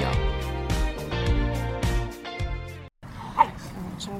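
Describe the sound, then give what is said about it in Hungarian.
Dogs bark and growl in a rough, tussling play, a dense run of overlapping yaps for a few seconds, then a brief pause and one sharp high yip. “csak kicsit durvábban játszanak.”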